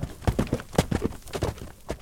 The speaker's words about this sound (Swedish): men bonden svingade sig upp på hästen och red därifrån med fart.